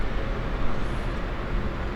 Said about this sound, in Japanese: ただいま鴨川のほとりにいます鴨川のほとり静かな印象ですけど対岸に川端通りがあるので結構車の音がうるさいです